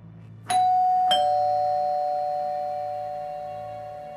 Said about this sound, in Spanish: Pulsó el timbre varias veces y podía oír sonar el timbre por toda la casa, pero de nuevo nadie respondía.